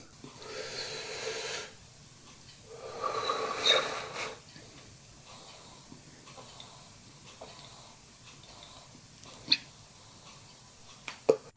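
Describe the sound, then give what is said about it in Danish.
Soft breathy draw of smoke from something heated to 230 degrees, followed after a short pause by a long airy exhale, then quiet with a few faint sharp clicks. “Skal jeg lige suge og puste her.”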